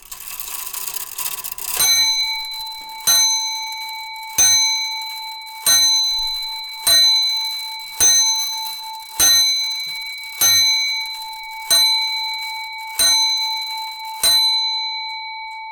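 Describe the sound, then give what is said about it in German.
An antique lion clock, adorned with a lion's head that opens its mouth as it strikes, strikes the hour on a bell: a short mechanical whir, then about ten bright, ringing chimes at a steady slow pace, each fading out. Clear, with no voices. “Noch schneller als die Prager astronomische Uhr läuft die Löwenuhr, die ihren Namen von einem Löwenkopf hat, der sie an der Stirn schmückt und der beim Stundenläuten sein Maul öffnet.”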